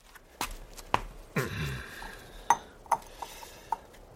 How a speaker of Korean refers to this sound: 시인은 사료캔을 그릇에 옮겨 담아 지하실 계단 옆에 두었다.